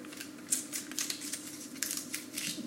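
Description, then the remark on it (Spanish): Crisp paper crinkling and tearing as the paper wrapping is peeled off an Apple USB-C power adapter, a quick run of sharp rustles and snaps over a few seconds with no one speaking. “Debajo de esas instrucciones tenemos el conector de USB-C a la corriente, que es un poco más pequeño que el del MacBook Pro que yo tenía y que voy a sacar aquí del, del papel”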